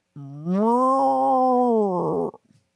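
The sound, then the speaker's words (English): A person imitates a cow's moo, mimicking the noise made whenever the door to a sealed, controlled cheese room in a cheese cellar was opened: one long, loud, rising-then-sustained lowing call lasting about two seconds, ending in a rough, breaking tail, with no other sounds around it. “that's your cow and imitation.”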